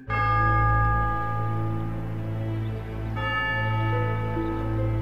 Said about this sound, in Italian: E così, in un certo senso, anche se a distanza, il brigadiere Cesca sente anche lui i rintocchi delle campane che suonano sotto l'acqua del lago e dal fondo portano la voce dei fantasmi.